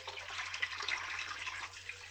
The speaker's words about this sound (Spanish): Eh, así que mira, acá tengo la, uy, tengo la pava, voy a, a poner el agua, ¿no?